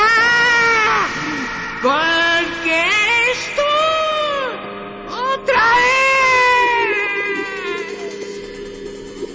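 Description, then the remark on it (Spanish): A man screams loudly in several long, wavering cries that swoop up and down in pitch, with short breaks between them and the last drawn-out wail slowly fading. “Uno de ellos gritó de forma atronadora.”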